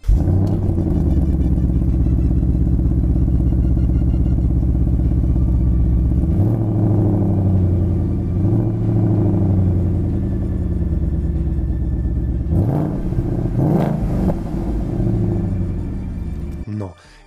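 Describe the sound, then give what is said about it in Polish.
A loud car engine, started in its normal rather than quiet start mode, rumbles with a deep, throaty idle, briefly revving twice before cutting off abruptly at the end. “Nie cichy, ale to miło, że ponieważ ten silnik fantastycznie mm, gada, jak Ból go odpalisz.”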